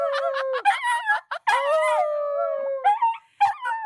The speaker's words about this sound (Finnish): Tai itse asiassa au, koska nämä ei hauku, vaan nämä vaan ulvoo. Ai niin, kato, se tulee siellä.